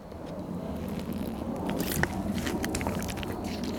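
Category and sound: food or drink, sipping water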